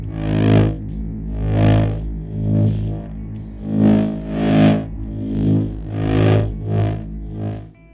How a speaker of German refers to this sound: Nun hat uns das elektrische Britzeln gefehlt. An einer anderen Stelle des TV-Gerätes konnten wir das aufnehmen. Das Geräusch hat viel weniger Tiefen und eben diese britzelnden Höhen. Es ist nur subtil dazugemischt und ergänzt den Grundsound.